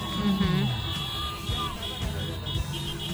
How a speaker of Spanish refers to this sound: Este es el ambiente, mira, este, en una de las calles donde la gente salió, o sea, salió a, gritar, a vitorear, a sentirse orgulloso de, su tierra nicaragüense.